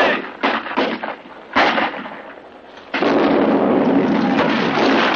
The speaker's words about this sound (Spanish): La explosión de la bomba lanza a Alfonso al suelo.